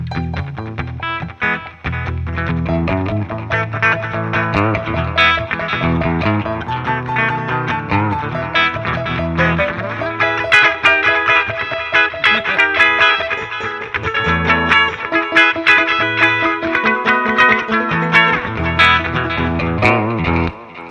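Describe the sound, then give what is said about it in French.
An electric guitar plays steadily through effects pedals, its notes washed in reverb with a touch of distortion and chorus, loud and continuous for about twenty seconds with no voices. “Mais moi, là, mon, reverb t'es pas correct, ça n'est pas.”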